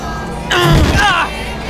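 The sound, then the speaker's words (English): A heavy thud as Daredevil (Matt) grabs a fleeing gang leader by the hair and slams his head into the ground, arriving with a sudden burst and a strained vocal grunt, then fading into a low background. “Matt slams the man's head into the ground.”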